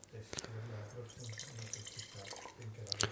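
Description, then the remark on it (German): A small splash of wine poured into a glass to rinse it, a short trickle with a few drips and a bright clink near the end, while a faint voice murmurs underneath. “Vielleicht einmal kurz aufwinien. Ja, es. Weil der vorherige Wein ja. doch sehr kräftig war.”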